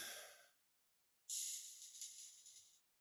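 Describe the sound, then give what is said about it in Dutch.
An airy breath fades out, then after a short pause a long, slow exhale rushes out for over a second, as a person breathes slowly in and out, counting each exhale to fall back asleep. No talking, just steady breathing. “Zo in, uit. En elke uitadem is tellen.”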